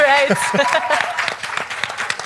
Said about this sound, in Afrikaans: sy het duidelik haar hele eie juigkomando saamgebring.